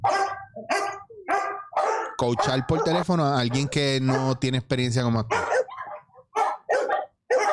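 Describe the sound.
Dogs bark in repeated short bursts, fairly loud, before and after a stretch where a person talks over them.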